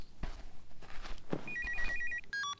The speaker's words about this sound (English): I hear your cell phone.